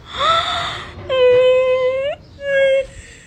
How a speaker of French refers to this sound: elle partage ses coups durs, elle se filme souvent en pleurs, par exemple lorsque elle se fait casser sa voiture ou lors de ses nombreuses péripéties